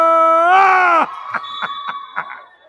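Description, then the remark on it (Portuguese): A crowd lets out a loud, sustained scream for about a second during the second free throw for Palmeiras, then it cuts off into a series of shorter rhythmic shouts and bursts of noise. “É Tiraram no grito essa, hein, Félix?”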